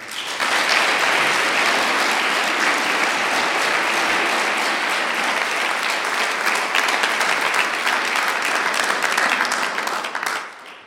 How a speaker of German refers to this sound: Also, liebe Musikgesellschaft Almendingen, vielen Dank, wart ihr heute da, habt uns bereichert mit eurer schönen Musik und ich glaube, das hat auch einen großen Applaus verdient.